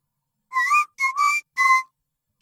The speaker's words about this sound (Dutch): Ik zal misschien eerst het soundlogo zelf laten horen. En dat klinkt zo.